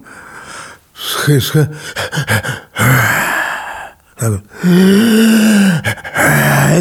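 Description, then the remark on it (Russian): A voice mimics a man's sleep apnea at night, with breathy gasps, strained groans and a long drawn-out snoring moan between short pauses. It sounds fairly loud. “Но он не знает, что, у него были, что он ночью не мог спать, что у него было апноэ, что он каждые несколько минут просыпался”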